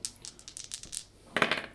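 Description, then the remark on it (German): Dice rattle with a quick string of small, sharp clicks, then clatter in a louder burst as they tumble onto a hard surface, rolled for an Investigate check. The sound is brief, with no voices. “Okay, du fängst also an, dich da ein bisschen würfeln, einfach mal auf Investigate”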